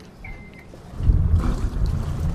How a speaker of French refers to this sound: Bah, tout le monde est prêt, je lance les moteurs.